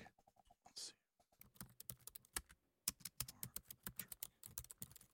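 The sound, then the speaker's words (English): Rapid typing on a computer keyboard, a steady stream of sharp clicks with brief pauses between bursts, heard on its own without any talking. “He's typing right now.”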